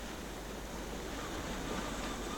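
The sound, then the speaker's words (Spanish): A steady, continuous wash of ocean surf at night, a broad hissing roar that holds an even level throughout with no distinct breaks between waves, and no voices. “Y eh, la noche, la oscuridad, el mar, el ruido de las olas nos llevan a dónde?”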